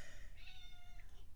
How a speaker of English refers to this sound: That's my cat.